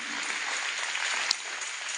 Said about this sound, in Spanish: Dele un aplauso. Amén.